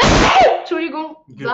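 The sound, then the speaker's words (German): A single loud, sharp sneeze bursts out at the start, followed right away by speech. “Gesundheit.”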